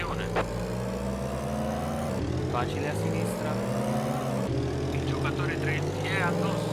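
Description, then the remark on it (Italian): A video game race car engine drones steadily with a buzzy, lawnmower-like whine, holding a constant pitch throughout while a person talks over it. “però essere tra i primi tre con una macchinetta di questo genere che sembra un tagliaerba”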